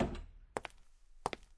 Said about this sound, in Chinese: 刚关门，回头就看到沙发一角，刚才欧星辰丢在地上的衣服，从地上捡起来。